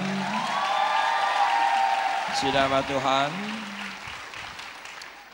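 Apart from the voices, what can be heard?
audience applause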